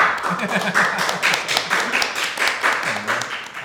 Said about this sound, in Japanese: 身内拍手で。